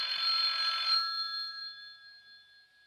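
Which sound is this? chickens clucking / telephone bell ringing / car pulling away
telephone bell ringing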